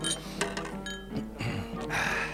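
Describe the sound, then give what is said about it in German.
Champagne glasses clink together in a toast, several bright ringing taps in quick succession, over a faint murmur of background voices. “Zuerst Prost. Prost. Prost. Prost.”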